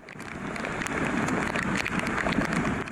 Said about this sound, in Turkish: Tekirdağ'da yağış kısa ama etkiliydi. Çorlu'da öğleden sonra başlayan sağanak yağışsa cadde ve sokakları göle çevirdi.